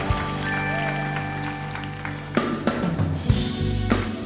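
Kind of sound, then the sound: crowd, audience clapping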